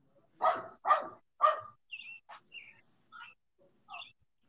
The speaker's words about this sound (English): I'm sorry. I just heard some intense barking and I wasn't sure where that was coming from.